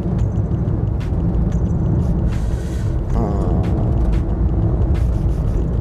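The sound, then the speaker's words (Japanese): Steady low road rumble of a car moving through flowing traffic near an airport on a Wednesday, with a continuous engine and tyre drone, brief hisses like passing air brakes, and no talking. “なんかこれだけ流れるからですねやっぱり車が”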